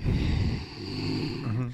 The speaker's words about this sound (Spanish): Entonces respiramos por nariz, inflamos la panza lo más que se pueda y sacamos el aire.